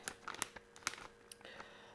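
Crinkling of a chips bag made of paper rather than plastic being handled, a rapid series of sharp crackles and rustles with brief pauses, fairly quiet overall and with no talking.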